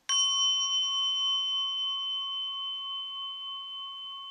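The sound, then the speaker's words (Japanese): A single strike on a Buddhist orin bell, a bright metallic ding followed by a clear, shimmering ring that sustains and slowly fades over several seconds, alone. “ねいろ図鑑(3のつづき)おりん”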